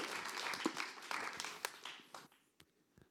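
An audience at a worship service applauds for Sibert and Sage with dense, crackling claps that gradually thin out, leaving a few scattered individual claps before fading to near silence.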